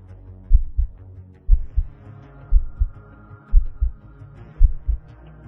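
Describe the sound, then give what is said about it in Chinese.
A man's heartbeat of deep, muffled double thumps, five lub-dub pairs about a second apart at a fairly even pace, over a low, steady hum with no voices. “天理图，高亮这三个字一出口，我明显的感觉到萧三达的身子剧烈的颤了一下，随之而来的是他越来越快的心跳声。”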